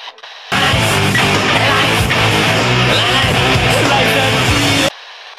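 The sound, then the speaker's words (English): A loud burst of radio static hisses and crackles steadily for about four seconds, with faint garbled tones and warbles buried in the noise, then cuts off abruptly. “So, without further ado, dun dun dun dun dun dun dun dun, dun hit the static.”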